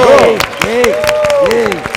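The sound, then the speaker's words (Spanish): An audience applauds the cast at the end of a comic stage performance, with scattered, uneven claps, while loud voices cheer and call out over the clapping throughout. “Gracias a todos por estos maravilloso y merecidos aplausos.”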